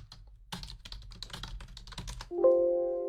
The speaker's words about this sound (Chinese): 听到我巴拉巴拉按键盘的声音，有没有觉得我打字超快？